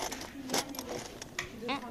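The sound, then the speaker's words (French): Several sharp metallic clinks of cutlery, spoons and forks, as boys set the tables for lunch in a large refectory, at an irregular pace, with voices talking quietly underneath. “Oui, alors on entend les couverts.”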